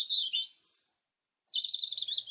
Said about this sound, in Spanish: Este es el canto de un petirrojo habitual de bosques de ribera.